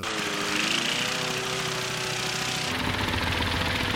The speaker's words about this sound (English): And they do a great job really animating this lawnmower because it is shaking back and forth.